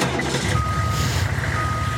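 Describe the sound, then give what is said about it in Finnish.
A truck's reversing alarm beeps in long, steady tones over a deep, constant engine rumble, heard from outside. “Mutta rekka.”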